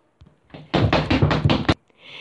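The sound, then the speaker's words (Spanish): Loud knocking on a door: a quick burst of about six heavy raps in a row, preceded by a faint tap, with no one speaking. “La puerta volvió a sonar.”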